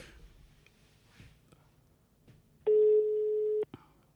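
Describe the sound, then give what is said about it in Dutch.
A telephone ringback tone sounds once while a call to someone's phone connects: a single steady, loud beep lasting about a second, following a quiet stretch of faint clicks and rustling. “We hebben een leuk geluidje, in het piepje elke keer.”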